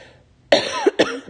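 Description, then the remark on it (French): Two quick, harsh coughs, the second following just after the first, with no speech around them. “je tousse.”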